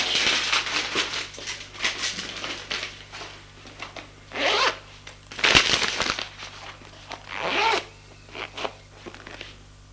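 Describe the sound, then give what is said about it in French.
Rustling as a woman slips a letter in its envelope into her bag, followed by a series of quick, raspy zipper pulls in bursts of varying loudness, with no one speaking. “Elle met la lettre dans son enveloppe et dans son sac.”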